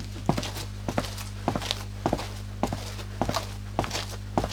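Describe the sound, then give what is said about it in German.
Foley footsteps made with sand to sound like outdoor steps on a dirty street: about eight evenly paced steps crunching with a scraping, sandy texture, moderately loud over a low constant hum. “dann äh, machen wir jetzt mal Außenschritte auf einer Straße”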